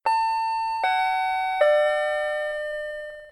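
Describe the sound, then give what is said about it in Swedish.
A doorbell or elevator-style chime rings three clear tones in descending pitch, each struck about a second apart, with the last note ringing out and slowly fading. No one speaks. “Är det en dörrklocka det där? Ja, du tänker ja. att det är en hissignal?”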